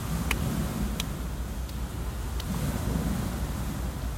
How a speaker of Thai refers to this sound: ลมไม่ค่อยเย็นเลยนะลมทะเล